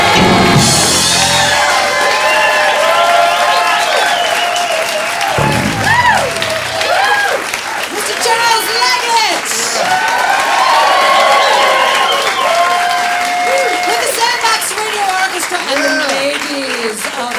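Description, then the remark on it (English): A live audience at the Sandbox Radio show Fools Rush In, recorded April 29th, 2013, applauds and cheers loudly for the whole stretch, steady dense clapping mixed with whoops and shouts, with excited voices rising and falling through the crowd noise. “You're listening to Sandbox Radio Fools Rush In, recorded in front of a live audience on April 29th, 2013.”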